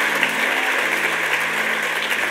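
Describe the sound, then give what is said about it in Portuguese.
A church audience applauds in praise of Jesus in a dense, steady wash of clapping that holds at an even loudness throughout, with a low sustained hum underneath and no voices. “Aplauda o Senhor Jesus por isso, porque isso é profético.”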